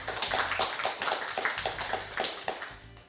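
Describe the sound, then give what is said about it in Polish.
A crowd claps steadily for a few seconds, the dense patter of many hands forming a continuous, moderately loud wash of applause with no voices over it; the audience at a live-streamed meeting is welcoming a guest. “Publiczność zebraną poproszę o jakieś szybkie brawa na przywitanie”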